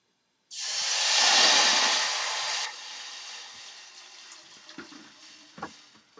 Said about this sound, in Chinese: 是四百五十 CC 的生饮水。我们现在把生饮水加入我们的这一锅有香料跟茶的锅子里面